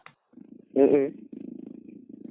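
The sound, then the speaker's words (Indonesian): A kitten purrs in a low, steady rumbling rhythm that pauses briefly for a louder, short tonal vocal sound, then resumes its continuous purr. “anak kucing ya keheng kucing kenapa kucing ngajak tidur”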